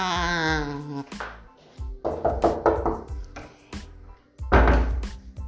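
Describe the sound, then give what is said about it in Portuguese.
A series of sharp knocks on a door in the morning, spaced irregularly over several seconds and fairly loud, following a brief sustained tonal sound at the start. “Na manhã seguinte, ela ouviu alguém bater na porta.”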